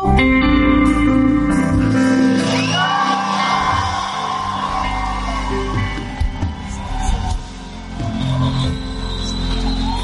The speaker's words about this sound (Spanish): así que vas a gritar con todas tus fuerzas, pero en ese grito va a haber liberación porque Dios quiere traer gloria en lugar de cenizas. ¿Listo?